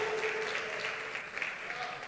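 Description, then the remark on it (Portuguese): A large audience applauds steadily for a couple of seconds, a dense, continuous wash of clapping with some faint voices mixed underneath. “Dê um aplauso bem forte”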